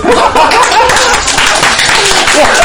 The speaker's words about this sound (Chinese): 我说一句话你们来给我鼓掌